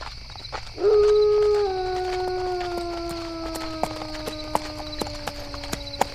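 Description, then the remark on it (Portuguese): Hooves of ridden horses clip-clop in a steady, unhurried rhythm, while a long, loud howl rises early and then slowly trails off, sustained over the hoofbeats. No one speaks. “Já cavalgamos um dia inteiro. Devemos dar água e comida para os cavalos também e descansar um pouco.”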